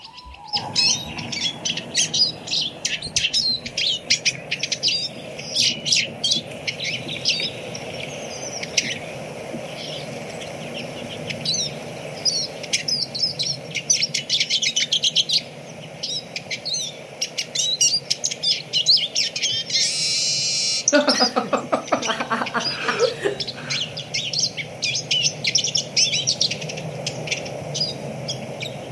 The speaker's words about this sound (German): Dann hören wir jetzt einmal äh, den Erlensheisig uns an.